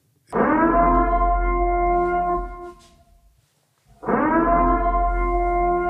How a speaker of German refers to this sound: Also hört euch mal diese Sirene an. Jetzt bin ich gespannt.